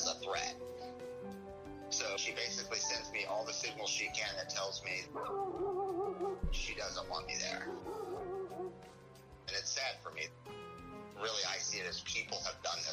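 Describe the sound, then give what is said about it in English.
A female dog yips and whimpers in high, wavering whines with short bark-like bursts, fairly loud, while a person talks over much of it. “to this dog.”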